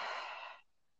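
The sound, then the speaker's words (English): A single heavy, breathy exhale, airy on the mic, lasting about half a second before fading into near silence. “I'm just breathing hard because I'm fat.”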